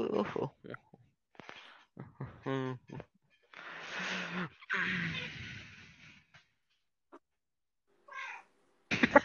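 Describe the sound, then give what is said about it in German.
A cat that had been lying asleep in a bathroom and has just woken up meows several times, a few drawn-out, wavering cries with harmonic, tonal pitch, broken by soft breathy sounds and short pauses, with a couple of fainter meows near the end. “Hast du eine Katze mitgenommen?”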